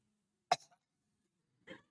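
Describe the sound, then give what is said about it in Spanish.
Two short, harsh coughs, one sharp and forceful near the start and a softer one over a second later, with quiet between them and no talking. “Todavía está tosiendo y sí.”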